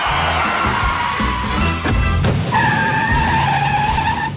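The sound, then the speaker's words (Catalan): A sports car roars off at speed as its occupants flee, with loud, sustained tire screeching, a high squeal rising over the revving engine and holding steadily to the end, without any talking. “vam fugir en un cotxe esportiu, cagant llets, com a les pel·lícules.”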